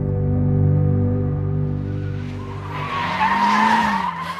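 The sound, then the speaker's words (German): A car engine drones steadily with a low, rumbling harmonic tone, then tires break into a loud, screeching skid as the car drifts, the squeal rising over rushing noise near the end. “Ein eigenes Auto ist für die Jungs identitätsstiftend und Driften ein Lebensgefühl.”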